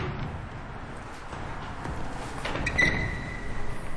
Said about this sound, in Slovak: Vchádzame do domu svätého Martina. Ja práve stiskam kľúčku a otváram ťažké drevené dvere, aby sme vošli do katedrály. Oni aj vyjadrujú tie dvere, že vchádzame do veľmi vzácného priestoru, sakrálneho, duchovného priestoru.